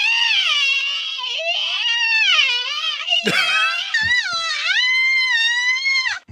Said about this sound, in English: Here's another amazing scream.